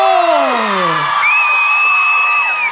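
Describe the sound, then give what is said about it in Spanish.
A crowd cheers loudly for a few seconds for the winner of a contest, with falling whoops and shouts at first, then a long, steady high-pitched whistle over a continuous wash of crowd noise and clapping. “¡Un aplauso!”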